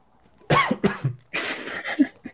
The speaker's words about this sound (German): Ich habe ein bisschen Hustenreiz heute